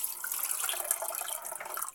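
Tap water runs steadily into a pot, topping it up with more water for steaming, a continuous bright splashing hiss with a slightly gurgling, uneven texture as the vessel fills, with no talking over it.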